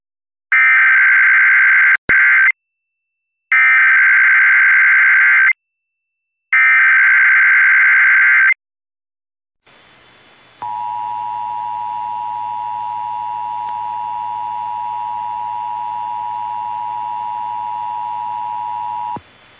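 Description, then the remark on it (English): Emergency alert broadcast tones introducing an Amber Missing Child Alert for Austin, Travis County, Texas: three loud, harsh buzzing bursts of about two seconds each, then a long steady high-pitched tone that holds for nearly ten seconds. “This is an Amber Missing Child Alert.”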